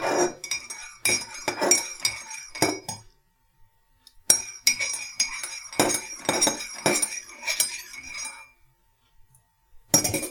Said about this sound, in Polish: Eee, biorę jedną z saszetek i wsypuję jej zawartość do gorącej wody. Tak. Eee, rozmieszam łyżeczką.